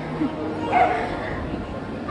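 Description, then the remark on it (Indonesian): A dog barks a couple of times, fairly faint, while a person talks and laughs over it. “kalian denger gak ada yang lagi gonggong anjingnya”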